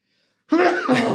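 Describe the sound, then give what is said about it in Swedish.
After a brief silence, a single loud sneeze bursts out in two quick voiced pushes, breathy and forceful, lasting well under a second. “jag måste nysa.”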